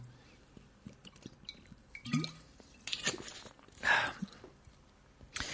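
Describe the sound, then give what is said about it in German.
Quiet liquid sounds of a person taking a sip of water: a soft clink, then wet squishing slurps and a gulp-like swallow, with small drips and mouth noises in between, no talking. “Augenblick, ich muss mal einen Schluck Wasser trinken.”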